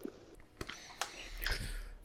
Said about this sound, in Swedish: Ja, jag sitter och smuttar lite på en eh, hem hemkokt eh, rackare här.